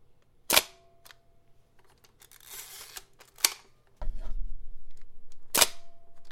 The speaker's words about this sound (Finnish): Tässä on hieno tämä laukaisu. Täällä liikkuu, kato, peilit liikkuu ja verhosulkimet liikkuu